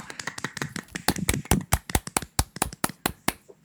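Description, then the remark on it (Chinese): A short round of hand clapping: about twenty sharp, crisp claps in a quick, fairly steady rhythm, moderately loud, with no one talking over it. “鼓掌。”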